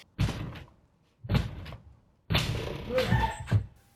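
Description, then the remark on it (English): Heavy, repeated pounding on the front door of a house in Surrey just after 5 a.m. by a shirtless man trying to break in: three forceful bursts of thuds with short pauses between them, loud, with wood rattling under the blows. “Why is he banging on our door?”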